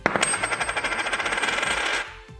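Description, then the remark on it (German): A Maple Leaf coin, dropped from about 10 centimetres, hits a hard surface with a sharp metallic strike, then rings and rattles in rapid bouncing chatter for about two seconds before settling, fairly loud with no voices. “Das ist der Krügerrand und jetzt im Vergleich dazu nochmal der Maple Leaf.”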